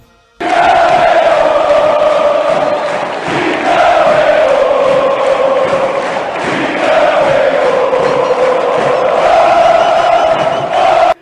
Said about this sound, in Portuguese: A torcida foi a loucura e um certo narrador também, chegando a cantar Tigre eu em plena comemoração do gol.